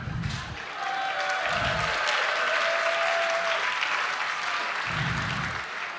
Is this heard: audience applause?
yes